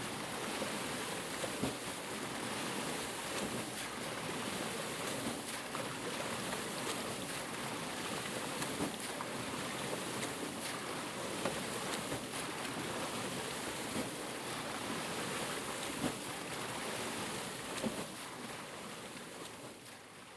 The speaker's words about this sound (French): Eh bien oui, il s'agissait d'une roue à aube.